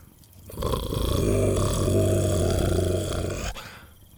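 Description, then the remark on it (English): A low, menacing creature growl rumbles steadily for about three seconds, loud, with a rough throaty texture before cutting off abruptly. “He just lowered his head and continued to growl.”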